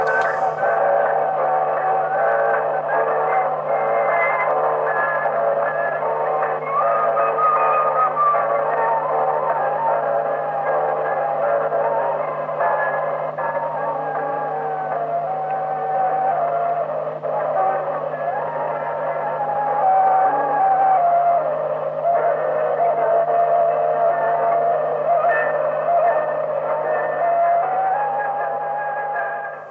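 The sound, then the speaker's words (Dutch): A muffled, low-fidelity tape recording of a recorder playing a wandering, slightly unsteady melody, buried in constant hiss and a low hum throughout, with no one talking. “dan horen we … op blokfluit. En dat gaat nogal mis. Ja, je moet goed luisteren, want het is nauwelijks te horen.”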